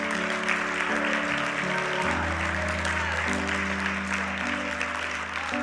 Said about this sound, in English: Why don't you clap to God?